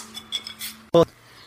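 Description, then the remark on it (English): A single bright clink of glasses touching in a toast to Elizabeth, fairly loud with a brief ringing tone, preceded by a few faint soft knocks. “So let's cheers to Elizabeth.”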